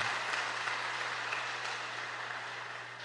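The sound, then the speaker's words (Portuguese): An audience applauds the Lord in the name of Jesus, a dense, steady wash of many hands clapping that holds evenly throughout with no voices breaking through, fading only slightly toward the end. “Aplauda o Senhor em nome de Jesus.”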